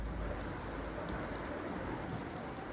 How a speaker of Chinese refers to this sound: 他们吵得太厉害了，他们俩没有看见一大块乌云飘过来遮住了太阳，也没有听到起风的声音，他们甚至没有注意到开始下雨了。